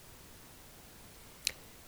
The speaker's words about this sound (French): j'ai entendu les tensions avant l'éclosion des feuilles.